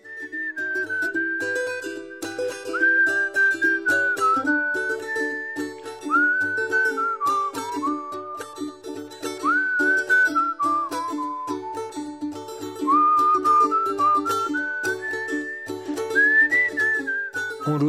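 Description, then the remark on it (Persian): Someone whistles a bright, bouncy melody while happily walking on foot to the capital, the tune rising and sliding between notes in short phrases over roughly eighteen seconds, with a low steady accompaniment underneath. “بعد با پای پیاده سود زنان و خوشحال به پایتخت میرم که حداقل چهل دقیقه از اینجا راهه”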